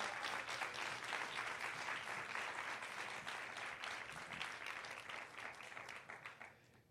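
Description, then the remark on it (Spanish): An audience applauds the Lord, a sustained, dense wash of many hands clapping loudly and steadily for several seconds before thinning out at the end. “Pero si usted lo cree, tiene que darle un aplauso al Señor de fe.”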